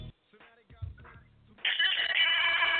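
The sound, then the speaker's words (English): A bell rings at the Indie Wrestling Show, starting abruptly and loudly after a quieter stretch of muffled voice-like sounds, holding a bright, high, continuous metallic ring until the end. “The bell has rung.”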